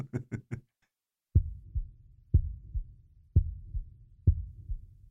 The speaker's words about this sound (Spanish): Pero el corazón siguió latiendo, con un sonido ahogado. Claro que no me preocupaba, pues nadie podía escucharlo a través de las paredes. Cesó por fin de latir.